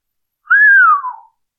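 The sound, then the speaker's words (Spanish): A single clear human whistle, fairly loud, sliding smoothly downward in pitch over less than a second, heard alone with no talking. “Sherlock Holmes se incorporó lanzando un silbido.”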